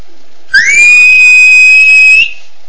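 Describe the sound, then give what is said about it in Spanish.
A single eerie, high-pitched whistle swoops up and then holds one steady, piercing tone for nearly two seconds before cutting off. It is loud, with no voices. “Ya iba a saltar el alambrado limpito cuando sintió un silbido como de ánima.”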